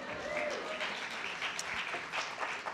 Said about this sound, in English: That alone deserves applause.